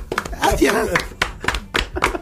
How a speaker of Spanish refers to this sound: Merece el aplauso, merece el aplauso en la tribuna de pie.